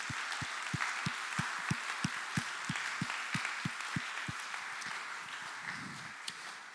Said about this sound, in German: Mal einen dicken Applaus für Juni, das finde ich ganz super.